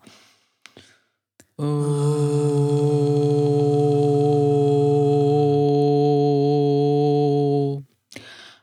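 A single long, low-pitched sustained vocal tone, a deep hummed or toned voice held steadily for about six seconds, rich in harmonics, preceded by a few soft breaths and clicks; low vocal toning taught by a home midwife as preparation for childbirth.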